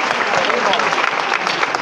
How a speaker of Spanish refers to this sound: Como digo, la cruz ya ha salvado la, la puerta de la Merced, empiezan los aplausos, ok.